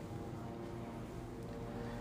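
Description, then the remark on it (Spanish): A steady, low engine drone of airplanes passing overhead, heard from a studio very near an air base, a continuous rumble with a faint whine on top that holds at the same level throughout, with no voices. “El día de hoy tenemos de compañero algunos aviones que vas a escuchar pasando arriba de nosotros, ya que aquí en el estudio estamos muy cerca de una base aérea.”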